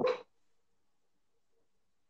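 A small female dog, Belinha, lets out one short, sharp yip, followed by near silence for the rest of the moment.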